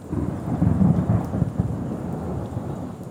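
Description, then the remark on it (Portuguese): Steady rain pours down while a deep, rolling rumble of thunder swells early on and then fades into a continuous low roar, with no voices present. “Temos muita chuva durante o ano todo para encher essa reserva gigantesca e manter ela cheinha.”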